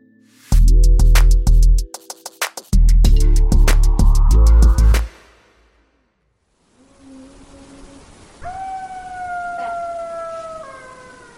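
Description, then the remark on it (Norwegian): A loud, blaring burst of sound opens, then after a brief silence a chorus of high, wavering golden jackal howls rises and holds, several voices overlapping; golden jackals are a predator newly arrived in Norway. “Det er lyden av et nytt rovdyr som har kommet til Norge.”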